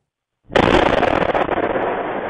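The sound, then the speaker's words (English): A house explosion in a housing development in East Ottawa, caught on camera, bursts in abruptly after a brief silence, a single loud, deep blast that levels part of the development and rolls straight into a sustained roaring rumble with crackling debris, no voices present. “when a massive explosion leveled part of a housing development, injuring at least a dozen people.”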